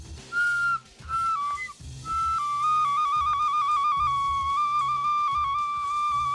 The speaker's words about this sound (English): Uh, this is uh, some kind of a whistle.